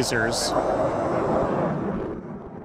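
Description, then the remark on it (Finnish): A loud, steady roar of military jet aircraft passing overhead during the Finnish Air Force Ruska 20 exercise, a few kilometres from Rissala, recorded during an interview, easing slightly toward the end, with a brief indistinct voice near the start. “Kuten saatoitte jo huomatakin, taustaa kuuluu aina välillä melko voimakastakin lentokoneiden meteliä.”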